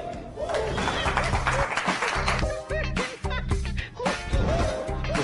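Sustained audience applause for the next comedian, from Amatitlán, on the comedy reality show La Risa, fills the whole five seconds, dense and steady, with scattered cheers and whoops rising above it and a thumping rhythmic beat underneath.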